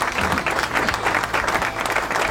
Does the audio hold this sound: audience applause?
yes